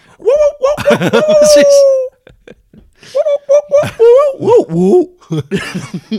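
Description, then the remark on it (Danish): Recorded wolf howls played on a radio station from a soundboard: a long, sustained howl holds steady for about two seconds, then shorter rising and falling howls follow, mixed with voices and laughter. “fordi en af de andre ting, der også bliver spillet her, det er sådan set bare straight up ulvelyde, der bare bliver spillet.”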